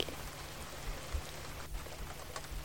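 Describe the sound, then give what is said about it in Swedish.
Steady rain falls in a dense, even hiss, with scattered louder drops pattering on a surface and a faint low rumble underneath. No one speaks. “Och känna en tacksamhet till att du har möjligheten att uppleva regn.”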